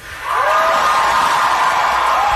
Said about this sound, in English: You hear the applause there. Uh, you who were there last night, mm-hmm. how do you feel that comment was received? Yeah, the, it, the over the overwhelming response in the, the room was really positive after uh, Pete talked about Senator Romney.